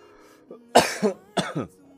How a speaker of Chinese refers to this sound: 看气得我都咳嗽了。